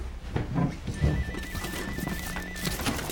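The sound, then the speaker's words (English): A mobile phone left at a police station rings with a rapid, pulsing high-pitched electronic tone that runs for about two seconds over a busy, noisy background, with no one talking. “Ben, I swear to God, if that's your phone again today.”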